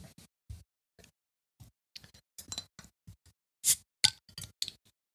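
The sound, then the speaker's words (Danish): Scattered light taps and knocks lead up to two bright, ringing clinks of drinking glasses in a toast, followed by a few softer tinkles; no one speaks. “Skal vi ikke drikke ja. noget mere? Jo. Skål. Skål.”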